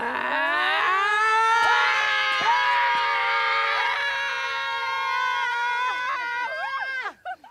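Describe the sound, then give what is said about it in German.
Young women in the film The Hill Where Lionesses Roar roar and scream together in one long, loud, sustained cry lasting about seven seconds, several high voices overlapping in pitch before breaking off abruptly at the end. “Da wird gerade heraus davon erzählt, was man als junge Frau halt machen sollte, wenn einem die Hoffnung erstickt wird. Brüllen.”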